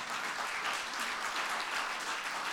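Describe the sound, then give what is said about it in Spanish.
An audience claps for the Lord, a dense, continuous wash of many hands applauding at an even level for a few seconds, with no voices standing out. “Dele un aplauso a su Señor en esta hora.”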